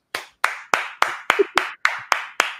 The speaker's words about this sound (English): Do me a favor out there, give it up for